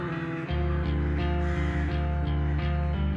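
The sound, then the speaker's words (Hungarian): Crows caw in short, harsh bursts at the start of a music track, repeating at an uneven pace over a steady droning musical tone that starts abruptly and holds throughout. “az a varjak az elején, az jó.”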